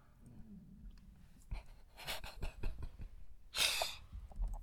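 A quiet, low gurgling rumble of a stomach growling, followed by soft clicks, rustles and a breathy burst, with no talking.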